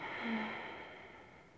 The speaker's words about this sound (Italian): Trova il ritmo giusto per te. Respira ed espira, naso-naso, rilassando tutti i muscoli del tuo corpo, lasciando andare le spalle e tenendo la testa al centro.